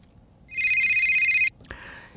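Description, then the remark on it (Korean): An old mobile phone ringtone chirps a bright, rapid electronic trill for about a second, loud, then cuts off, followed by a short click and faint tail. “이거 옛날 휴대폰 소리예요.”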